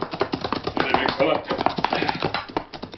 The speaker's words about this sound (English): He knew the famous rider of the West had ventured forth on his behalf, was with mixed feelings that he heard the approaching horse, whom Tonto identified as Silver. Oh, Silver, ho, boy, ho!